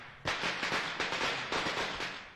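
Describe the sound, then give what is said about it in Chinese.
A dense string of firecrackers crackles and pops in rapid, irregular bursts, loud and sharp, starting abruptly and continuing steadily for a couple of seconds with no voices. “院内传来了噼噼啪啪的炸响声，年吓破了胆，不敢往前走了。”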